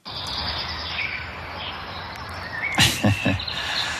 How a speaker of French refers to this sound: le chant des oiseaux le matin, alors c'est pas tout à fait le chant des oiseaux le matin, c'est Enfin oui, il y a euh, surtout au printemps, il y a, il y a une, période de la, journée, c'est vers 4 heures ou 5 heures, où tous les, tous les oiseaux